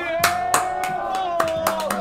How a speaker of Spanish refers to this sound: Tiempo, tiempo. Dale ese aplauso.